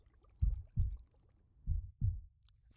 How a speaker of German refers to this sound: Es ist, es ist ein Herzschlag.